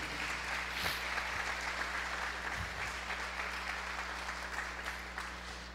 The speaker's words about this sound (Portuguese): Onde estão as mamães aqui na igreja? Quem aqui é mamãe aqui? A gente pode dar uma salva de palmas para as mamães aqui na igreja.